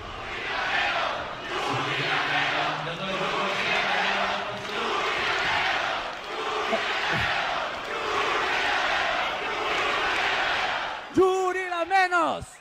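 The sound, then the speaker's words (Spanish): A large concert crowd chants the mocking slogan "Yuri la menos" in unison, a rhythmic, repeated shout rising in waves over several seconds; the singer joins the chant, with a voice breaking in loudly near the end. “Y quien también salió muy mal parada fue la Yuri, amigos, porque todos gritaron Yuri la menos, Yuri la menos.”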